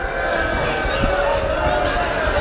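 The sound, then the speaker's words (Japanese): A dense, steady roar of a large crowd at the 55 Hiroba plaza of the Shinjuku Mitsui Building, Tokyo, during an inter-company singing contest among the building's office tenants. Voices blend into continuous cheering and babble, loud and even throughout, with occasional brighter shouts rising above the wash. “すごい歓声でしょう、えー、今週の水曜日から水木金の3日間ここ新宿三井ビルの、えー、55広場というところでこの新宿三井ビル、えー、オフィスビルなんですけどもこのオフィスビルに入居する会社対抗ののど自慢大会というのが行われていました”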